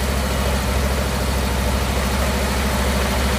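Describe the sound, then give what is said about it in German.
An original, stock car engine idles with a deep, rumbling exhaust note, steady and loud with a regular low pulsing throb throughout. No one speaks. “Also ist, glaube ich, für ein Originalfahrzeug äh, kein schlechter Sound.”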